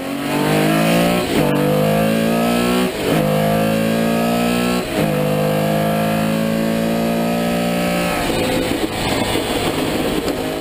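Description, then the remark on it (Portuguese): A loud Porsche six-cylinder engine revs hard and accelerates through several gear changes, each shift briefly dropping the pitch before it climbs again, continuous with no talking. “Se você é um cara muito, mas muito ligado aí com carros da década de 60 aos anos vai 80, 90, você já identificou aí que é um ronco de seis cilindros se você é um cara um pouco mais hardcore, vai identificar que é um ronco de Porsche, né?”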